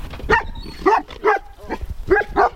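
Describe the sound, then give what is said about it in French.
Two Beauceron dogs bark sharply and loudly at a vegetable farm, about six barks in quick, uneven succession with a few overlapping, and no talking in between. “Deux beaux bosserons.”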